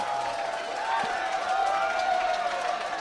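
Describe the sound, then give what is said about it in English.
A crowd goes wild with hands in the air, cheering and roaring without a break, a dense wash of many voices yelling together at a steady, loud level, with a few higher shouts rising above the din. “the crowd is going ballistic. Hands are in the air.”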